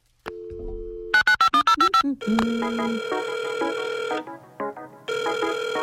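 The telephone of Alice from Mini TFO rings with a bright electronic ringtone, starting with a low dial-like tone, then a rapid burst of short beeps followed by sustained melodic ringing that pauses briefly and resumes.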